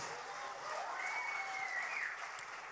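A church audience applauds to celebrate 14 people being baptized across its locations, with steady, dense clapping that holds at an even level for a few seconds, with no voices over it.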